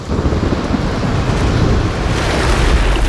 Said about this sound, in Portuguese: Quando tu acha que tu vai conseguir emergir, mais uma onda gigante cai e é como se o nível do mar simplesmente subisse